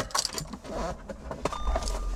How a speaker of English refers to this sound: and there's there's some classic car noises for you car fans. Um, we've got the ignition, which is what turns on the car, and we've got the classic beep, the, the beep beep beep that comes with the ignition these days.